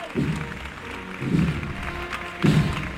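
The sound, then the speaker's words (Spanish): A crowd claps steadily in a dense, continuous patter as the Esperanza Trinitaria starts to move off, while three heavy low thumps land at a slow, even pace through the applause. “Arranca andar entre aplausos la esperanza trinitaria.”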